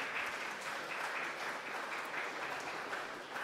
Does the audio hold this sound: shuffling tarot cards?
no